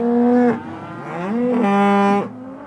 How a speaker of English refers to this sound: Here in Devil's Lake, men clutching whips herd a drove of black Angus into a chute, opening a huge hulking metal door.